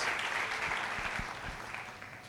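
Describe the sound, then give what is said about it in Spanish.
A church audience applauds the Lord, a dense, steady wash of many hands clapping at an even loudness, with a few sharper individual claps standing out, and no voices on top. “Dale un aplauso fuerte al Señor, que Él es el dador de la vida.”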